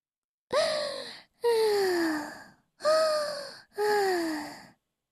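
A voice imitates snoring for the story character Bengbeng, sound asleep in bed: four loud, drawn-out snores in a steady rhythm, each about a second long, with a groaning, breathy tone that slides downward in pitch, and no talking.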